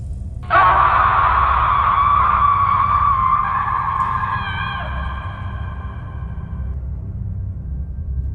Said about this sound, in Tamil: மெதுவாக திரும்பி பார்க்குறாரு அங்கே ஒரு பெண்ணோட உருவம் ஒன்று அழுகின நிலையில் ஜான்க்கு முன்னாடி நின்றுட்டுருக்கு அதை பார்த்த ஜான் பயத்தில் கத்த ஆரம்பிக்கிறாரு